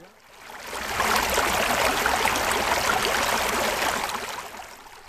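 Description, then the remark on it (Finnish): Dirty, untreated water flows and gurgles steadily, a continuous rushing babble that fades in, holds at an even level for several seconds, then eases off. No one speaks. “Näin likainen vesi virtaa puhdistamatta mereen ja saastuttaa sen.”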